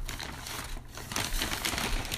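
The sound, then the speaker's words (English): Crinkling of a crumpled, greasy paper McDonald's bag holding a Big Mac being handled, a steady run of dry rustles and crackles with a brief lull midway. No one speaks. “Now we got to start out first with the bag, um, pretty crumpled, and his greasy all over.”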